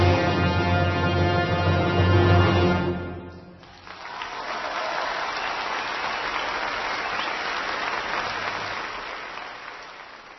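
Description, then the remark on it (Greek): A sustained musical chord with rich harmonics ends after about three seconds, and after a brief pause an audience breaks into steady, dense applause for the performer that continues loudly to the end. “Ακούσατε πρώτα τη μουσική και στη συνέχεια τα χειροκροτήματα σαν απάντηση στη μουσική.”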